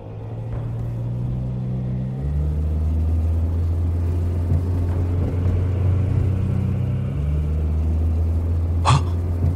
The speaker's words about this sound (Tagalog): Siya namang may paparating na sasakyan.